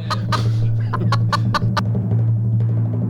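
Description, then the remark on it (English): A chicken clucks in a quick series of short, sharp bursts, roughly seven in three seconds, over a steady low hum. “The chicken is here, man. The chicken is here.”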